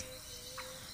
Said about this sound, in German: Man hört die Grillen zirpen